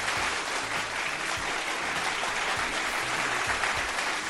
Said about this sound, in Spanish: Aplausos, aplausos.